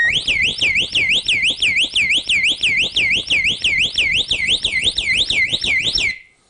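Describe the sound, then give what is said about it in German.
An alarm system siren, set off by lifting it from its wall mount so that its tamper contact triggers, wails loudly in fast, repeating high-pitched sweeps, rising and falling about three times a second for roughly six seconds before cutting off abruptly. “Das kann ich simulieren, indem ich einfach diese Sirene anhebe, denn die hat einen Kontakt, falls sie jemand von der Wand reißt, äh, dann erkennt die das und fängt an zu plärren.”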